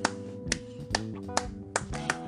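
Several sharp hand claps, about five in a steady, unhurried rhythm, applauding the author of a fantasy book, ring out over a soft sustained musical background, with no one speaking.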